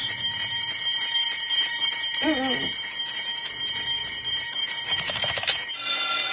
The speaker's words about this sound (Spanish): campanas.